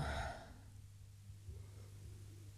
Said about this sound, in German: Es ist einfach so krass, wie mein Nervensystem runterfährt und ich einfach nur noch gähne und meine Augen nass werden und ich einfach wie so